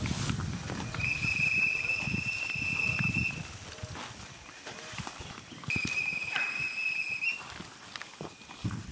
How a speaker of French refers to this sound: Un sifflement se glisse au milieu du chant des oiseaux il ponctue la progression de la colonne humaine à travers la forêt. Celles qui sont à l'origine de ces sifflements sont les Mukulukane, les femmes qui seront réceptacles de l'esprit des ancêtres